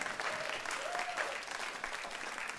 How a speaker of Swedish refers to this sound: Det kommer applåder i publiken också. Amen!